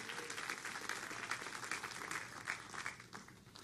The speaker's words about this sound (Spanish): Dele fuerte el aplauso a Jehová de bendecirnos completamente.